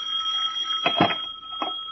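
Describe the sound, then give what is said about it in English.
A telephone on its stand rings at about 4:30 in the middle of the night with a steady, high electronic tone that holds unbroken for the full two seconds, while a few brief dull knocks sound over it, as if the handset is being fumbled. “So when the phone started to dance off its stand a couple of hours later, it took me a few minutes to locate it.”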